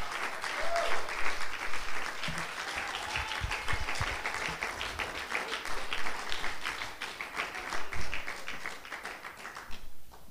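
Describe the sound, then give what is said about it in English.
A church audience claps hands to the Lord during a morning service, steadily and densely for about ten seconds, a sustained wash of overlapping claps, fading slightly at the end. “Somebody clap your hands to the Lord this morning.”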